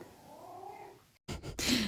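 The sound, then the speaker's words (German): A male domestic cat gives a drawn-out, wavering meow, then after a brief pause lets out a few harsh, breathy bursts, with no one talking. “Ja, und stellen Sie sich vor, nicht nur sprechen lerne ich unserem Kater, sondern natürlich ist er auch live dabei, wenn gesungen wird.”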